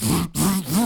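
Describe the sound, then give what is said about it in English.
A voice imitates a buzzy, whirring chainsaw-like electronic sound from a modern movie score in two rasping bursts split by a brief gap, the pitch dipping and rising. “it's like, is that a future chainsaw?”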